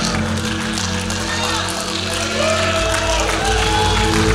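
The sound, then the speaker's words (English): An audience takes a praise break, breaking into loud, continuous shouting praise to God and applause, a dense wash of clapping and raised voices with a low musical hum underneath, swelling slightly toward the end. “If I was you, I'd be standing up, shouting, praising God, lifting my hands, doing some kind.”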